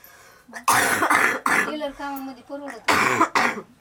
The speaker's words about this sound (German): Der trockene Husten plagt … schon seit Tagen.